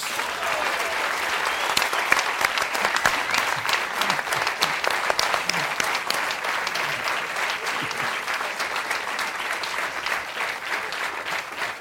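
A crowd applauds steadily for about twelve seconds, dense overlapping hand claps forming a continuous, fairly loud roar with no voices standing out.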